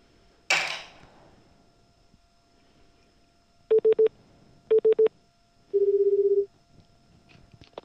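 A sharp click, then two quick bursts of three short electronic dialing beeps as a phone call is placed, followed by a single steady ringing tone on the line. Clear, with no talking.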